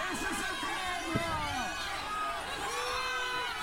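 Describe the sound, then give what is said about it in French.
A very large, dense crowd shouting and yelling in protest as police arrest a young man, many overlapping voices raised at once, loud and continuous with agitated cries rising above the din. “Comme vous l'entendez, c'est très violent, il y a beaucoup de cris de protestation, énormément de monde.”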